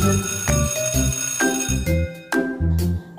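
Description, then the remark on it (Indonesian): A school bell rings out as a bright, steady chime melody, a string of clear tones struck about twice a second, loud with no voices, signalling the start of break time at school. “Bel sekolah sudah berbunyi. Tanda waktu istirahat tiba.”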